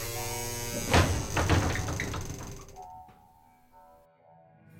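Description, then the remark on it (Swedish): A few metallic clicks and clunks of a lock being unlocked, followed by a drawn-out, low creak as a door slowly swings open outward, fading toward the end. “Du hör ett lås så här, låses upp. Och långsamt öppnas dörren utåt.”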